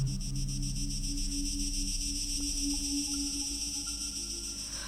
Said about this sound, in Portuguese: De vez em quando, ouve-se o zumbido dos potentes motores.